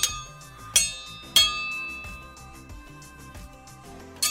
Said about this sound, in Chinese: 很很怀旧的声音。对， 去打它就变成。 像以前那种八零年代的功夫片的互砍的时候，那个刀的声音就是长这个样子。